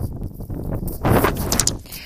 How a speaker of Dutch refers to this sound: prachtig weer, maar er is opnieuw heel veel wind. Ik hou niet van veel wind.